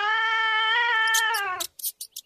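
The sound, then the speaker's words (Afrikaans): A single long, loud cat yowl, sustained and wavering for over a second and a half, then a few short, sharp clicks and rustles right afterward, clear with no talking. “Die kat wil ons vang.”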